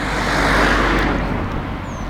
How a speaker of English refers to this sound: Another car coming past. Oh, it's not a Range Rover this time.